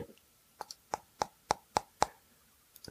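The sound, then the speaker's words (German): A fingernail taps an anti-glare plastic screen protector film on an Oregon 650T GPS device about eight times in a quick, fairly even rhythm, each click sharp, with two softer taps trailing at the end. “Aber ganz ehrlich, hier hören wir am Fingernagel.”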